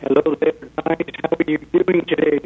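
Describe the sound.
A man calling in from New York to the End of the Age show talks over a phone line. His voice sounds thin and narrow-band, and the call audio breaks up slightly, with small choppy dropouts between words.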